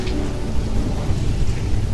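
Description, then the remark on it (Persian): Steady rainfall hisses continuously while deep, rolling thunder rumbles low underneath, filling the whole stretch with a dense, even storm wash and no voices. “دارم ولی فکر کنم چند دقیقه ببندمش از بارون خوشم میاد”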